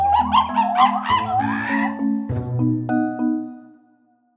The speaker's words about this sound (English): It's monkeys. Here's what monkeys sound like in real life.